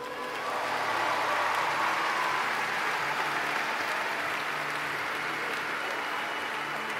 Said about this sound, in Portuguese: Glória a Deus, aplauda o Senhor.